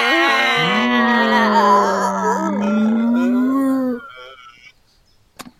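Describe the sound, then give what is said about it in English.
Several voices together let out a long, loud, droning moan that wavers in pitch, imitating a whale call for about three and a half seconds before breaking off into near silence. “you never do the whale with us.”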